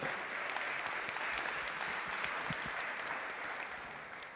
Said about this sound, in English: Yes, y'all can clap it up.